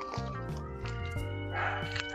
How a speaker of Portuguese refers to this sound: Não sei se vocês estão escutando aí, mas tem um cachorro correndo atrás de um gato e, e tá foda aqui. Achei que era uma mas... mulher gritando.